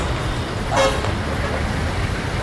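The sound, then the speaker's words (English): A single short car horn blast cuts through a steady wash of road traffic noise, loud, with the rumble of engines continuing underneath. “And ah, now there's traffic, damn it!”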